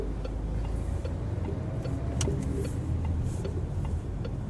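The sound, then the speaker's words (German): Steady low rumble of a car driving, heard from inside the cabin, with constant road noise and a few faint ticking clicks scattered over it. “Wir können sogar sabbeln beim Fahren.”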